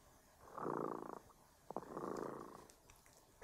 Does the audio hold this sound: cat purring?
yes